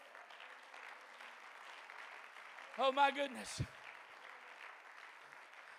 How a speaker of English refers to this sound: Clap your hands to the Lord.